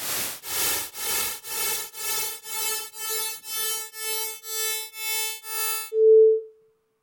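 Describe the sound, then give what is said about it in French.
About a dozen evenly spaced bursts of repeated noise, each with more repetitions and taking on a steadier buzzing pitch than the last, followed by a short, clear steady tone at the end. No talking. “Je vais vous faire entendre ces bruits qui sont régulièrement utilisés.”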